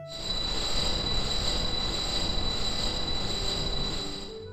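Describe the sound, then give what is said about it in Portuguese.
Loud, steady roar of an enormous factory's heavy machinery with a piercing metallic whine layered on top, droning continuously for several seconds with no voices. “Mas seu grito era muito baixo, comparado ao ruído daquela fábrica enorme.”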